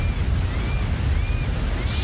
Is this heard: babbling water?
yes